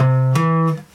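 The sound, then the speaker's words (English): A guitar plays a major triad as three sustained notes, each struck about a third of a second after the last, ringing clearly and fading out just before one second. “It sounds like this major triad,”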